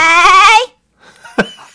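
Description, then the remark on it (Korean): A person imitates a goat's bleat while saying the Korean word "오라이" ("all right"), a loud, wavering, nasal cry lasting about half a second, followed by a brief pause and a short sharp burst of voice. “염소 목소리로. 오라이!”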